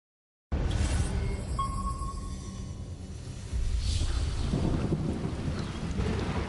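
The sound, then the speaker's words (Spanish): Heavy torrential monsoon rain pours steadily on the village of Selvanagar in eastern Sri Lanka while deep thunder rumbles, swelling louder about halfway through; no voices, just a dense, continuous roar of downpour and low rolling booms. “Caía una lluvia torrencial.”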